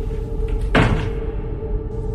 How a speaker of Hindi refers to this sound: दरवाजे को बंद करके पलट के वापस जाने को अंदर मुड़ा तो आवाज फिर से आने लगी उसने फिर से दरवाजा खोला तो वो आवाज बंद हो गई दरवाजा एक बार फिर बंद किया